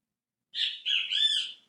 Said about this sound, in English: 6 a.m. only that, and the birds are out. Anyway. I hope you enjoy the chirping in the background.